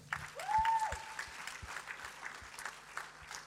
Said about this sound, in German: Ich würde wirklich gerne allen denen, die gespendet haben, die Grosszügigkeit haben, dargelegt haben, danke vielmals, das ist euer Applaus, danke.